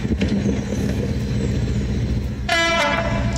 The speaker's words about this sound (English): I got out of bed at 4:30 this morning as I heard that there was a really rare train coming through Shawford station. It's a class 56 and it's due through here in a moment.